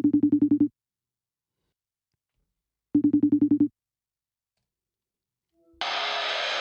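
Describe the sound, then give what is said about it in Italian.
A telephone ringback tone plays in two pulsing bursts separated by silence, as an outgoing call waits to connect, then cuts to a steady hiss of line noise. “Sì, torna, torna, torna in bagno che telefoniamo”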